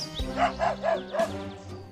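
A dog barks four times in quick succession at a park during play, short harmonic yaps, moderately loud, with no one talking over them.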